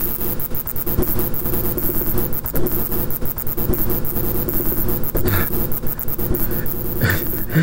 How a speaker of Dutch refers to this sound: Ja, het, is, het klinkt als het gezoem van, eh, van een grote wesp, van een hoornaar. Maar het is eh, eigenlijk het geluid van een vleermuis